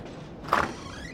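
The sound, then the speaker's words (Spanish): A man opens his door to someone who knocked: one short, moderately loud scraping creak with a faint rising squeal trailing after it. No voices are heard. “abre, pero no es la autoridad quien ha tocado a su puerta.”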